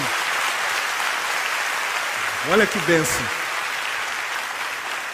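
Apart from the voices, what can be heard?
audience applauding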